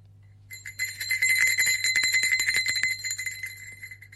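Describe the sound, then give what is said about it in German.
A cluster of small altar bells jingles brightly and continuously for a few seconds, a shimmering, rapid ringing that swells then fades, with a low steady hum underneath; rung by altar servers in a church before the consecration, as the priest raises the bread. “Und er sagt dann, Moment, Moment, jetzt musst du ja schon läuten, Schnuckel.”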